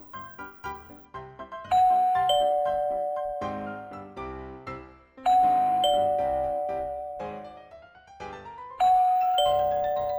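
A chiming doorbell at Mr. Turkey's house rings three times, each press a bright two-note ding-dong that rings out and slowly fades, with a quick run of lighter tinkling notes at the start and no talking.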